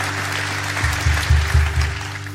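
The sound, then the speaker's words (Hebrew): An audience applauds steadily to welcome the next speaker, a broad wash of many hands clapping, while a low droning hum with rhythmic pulsing swells underneath partway through. “קבלו מלאות כפיים את הדובר הבא,”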